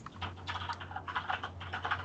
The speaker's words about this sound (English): It's a um, mechanical keyboard.